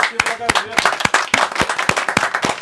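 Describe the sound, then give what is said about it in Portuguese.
A small group claps steadily for the rain falling in Santa Cruz do Sul, sharp irregular hand claps forming a short burst of applause, with a faint voice briefly audible underneath at the start. “Eu convido a todos para a gente colocar aqui uma salva de palmas para essa chuva que cai nesse momento em Santa Cruz do Sul.”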